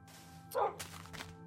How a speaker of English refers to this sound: Uh, woof, Wolfie smells it too. He hates it.